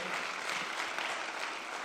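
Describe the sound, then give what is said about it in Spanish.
An audience applauds for the Lord in a steady, dense wash of clapping that holds an even level for about two seconds, with no voices standing out above it. “Alguien que le pueda dar un aplauso al Señor, que sea remanente fiel.”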